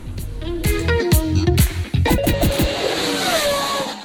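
A loud radio jingle built around a revving car engine: rumbling low harmonics punctuated by sharp bursts, then a rising, whining rev that carries through to the end. No one speaks.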